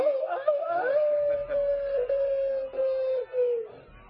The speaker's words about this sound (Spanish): no sé si habrá grabado el, el, aullido este último. Era excelente, ¿no? Sí, sí que se ha grabado.